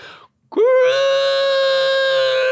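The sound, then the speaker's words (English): A person vocally imitates the strange, strained bark of the speaker's deaf dog Junior, who could not hear himself and sounded like the Cookie Crisp dog: a short gulp followed by a long, loud, sustained nasal wail that holds steady for about two seconds, alone. “But like he got he got deaf and he couldn't hear himself, so he sounded like the cookie crisp dog.”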